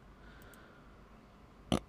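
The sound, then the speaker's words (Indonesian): A short, abrupt burp after drinking coffee pops out near the end, loud against an otherwise quiet background with no talking. “Sorry tadi, sendawa kopinya keluar.”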